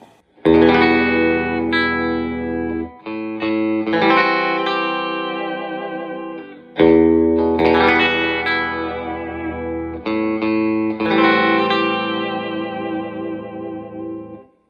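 Bright, ringing chords strummed on a Fender electric guitar played on the back (bridge) pickup, in two repeated phrases, each chord sustaining with rich upper harmonics and a touch of echo, played alone with no talking.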